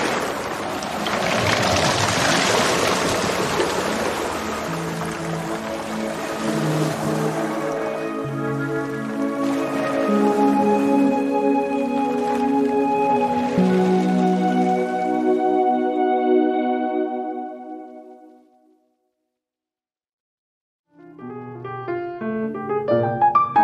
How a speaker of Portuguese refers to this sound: eu começo a gravar meus áudios com com uma entrada aqui de um vento sul à meia-noite, a lua está quase cheia. Nessas condições, o barco, geralmente à noite, com um vento sul, trazendo chuva e maré grande, balança um bocado e faz sons desse tipo.